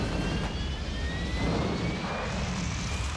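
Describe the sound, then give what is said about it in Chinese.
A steady, unbroken jet engine roar as a passenger airplane takes off, heavy low rumble with a thin high whine that rises slowly in pitch across the few seconds, no voices. “很快飞机起飞，可没过多久，忽然传来一阵剧烈的颠簸”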